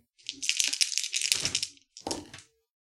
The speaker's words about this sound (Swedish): Och då slår ni lika många tärningar som ni har i uppmärksamhet och varje tärning som visar på eller under ert attribut som är kopplat till uppmärksamhet eh, räknas som en framgång.